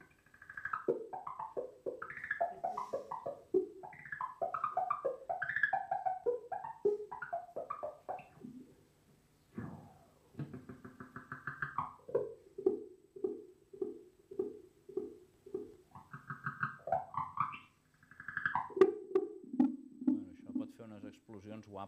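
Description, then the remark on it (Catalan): Electric guitar played through an analog delay pedal, phrases trailing into evenly spaced echoes that build into a self-oscillating tone, its pitch swooping upward, loud, before repeating again. “Anem al, al delay analògic, que aquí, clar, el color és tot un altre.”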